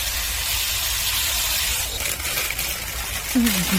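A steady hiss of water pouring or spraying runs throughout, as if a watering can or hose is wetting plants, with a brief faint tonal chirp near the end.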